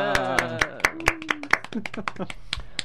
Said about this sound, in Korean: 박수 한번 치시죠.